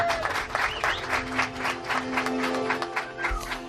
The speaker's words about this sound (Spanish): Uy, qué poco aplauden, ¿no? Les falta energía. A ver ahora. ¡Hombre! Esto es otra cosa.